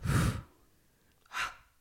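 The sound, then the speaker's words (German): A person imitates an astonished snort with their voice: a sharp, forceful breath burst, a pause, then a second shorter huff. No words are spoken. “Kennst du den mal machen, einen erstaunten Schnaufer?”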